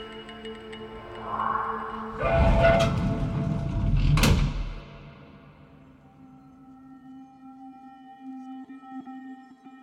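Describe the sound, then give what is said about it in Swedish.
Subway train doors slide shut on a silver-coloured carriage with a creaking, groaning sweep and a sharp clunk as they close, followed by the low steady rumble and hum of the carriage. “Innan jag hann fundera hade jag klivit in i den silverfärgade vagnen och de knarrande dörrarna stängdes lika plötsligt igen.”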